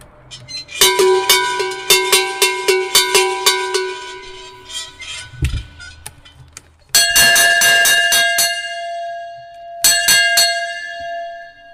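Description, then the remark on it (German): A sheet-metal cowbell clanks in a quick, uneven series of rattling strokes, then a cast bronze cowbell rings out with clear, sustained, resonant tones struck a couple of times, loud. “Also die erste, was du dazu gleich hast, das ist eine Blechglocken, also eine Blechschelle. Und die zweite ist eine gegossene, wie man sagt, eine Speisglocke.”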